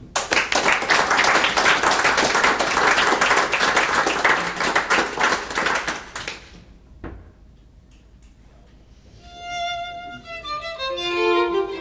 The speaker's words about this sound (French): Alors on va en profiter parce que ce soir, ils ont même voulu jouer pour nous. On applaudit pour leur souhaiter la bienvenue, le ….